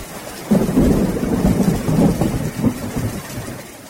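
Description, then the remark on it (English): Steady rain patters down on a roof, a dense wash of drops, while a low, rolling rumble of thunder swells in after the first half second and lingers throughout. “Unfortunately, we don't hear that sweet sound of rain on the roof enough.”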